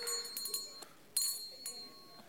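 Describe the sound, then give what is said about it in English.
A church bell rings on a Sunday morning, calling people to church, in a steady series of strikes, each clang leaving a bright, lingering hum that overlaps the next. It is fairly soft, with no voices. “That sound meant you got to get ready and get to church.”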